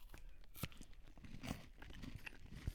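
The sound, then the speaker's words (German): Crisp crunching of someone biting into and chewing a KitKat Chunky chocolate wafer bar, with a few sharp snaps amid steady, fairly quiet chewing noises and no talking. “Klingt so, wenn man es isst.”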